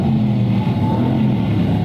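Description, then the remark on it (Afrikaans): The V8 bi-turbo engine of a Mercedes-AMG C63 S roars under hard acceleration as the car crosses the start and finish line on a lap, a loud, steady low-pitched growl with strong harmonic bands that hold and slowly rise, with no voices. “get a real good sense of the incredible power from this V8 bi-turbo coming across the uh, start and finish line.”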